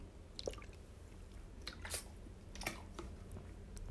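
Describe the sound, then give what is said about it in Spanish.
Quiet wet mouth sounds of someone drinking water: a few soft sips and swallows at an irregular pace, with no talking. “voy a tomar agua porque hace frío y me estoy deshidratando, no sé, con el frío me da mucha sed.”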